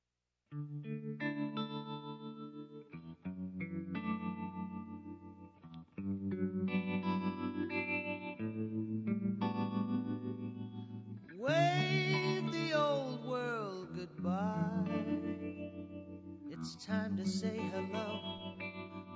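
An instrumental song intro plays, with sustained, chorus-heavy electric tones and steady chords, loud and close, swelling into a brighter, gliding passage partway through. No voices are heard.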